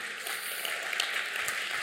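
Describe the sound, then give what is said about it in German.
An audience applauds for Jesus, steadily: a dense, even wash of many hands clapping at once with no voices standing out, holding a constant level throughout. “Ich finde, hey, Jesus, das ist ein Applaus an dich wert.”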